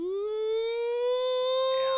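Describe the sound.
A voice imitates a tornado warning siren like those in the USA, a single sustained tone sliding up and then holding steady for about two seconds, fairly loud with no other speech.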